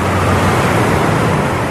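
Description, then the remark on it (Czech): A steady, dense wash of ocean surf with a constant roar and no clear breaks between waves, loud, with no one speaking. “Máte zvuk jako oceánu, třeba.”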